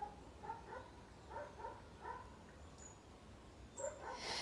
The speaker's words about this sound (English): I get to appreciate those dogs barking in the background in this conversation.